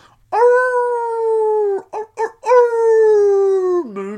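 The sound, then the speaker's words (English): A person drinking a Moon Dog beer imitates a dog howling to the moon: a long, loud, drawn-out howl, then two quick yelps, then a second sustained howl that slides down at the end. Unaccompanied. “That's whenever, whenever you're drinking a moon dog beer, you got you got to howl to the moon, but not like a furry.”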